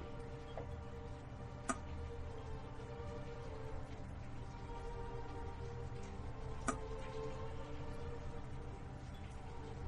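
Soft, mechanical ticking from screen-reader software performing OCR text recognition, quiet and steady over a constant electronic hum, with a couple of sharper clicks standing out. No one speaks.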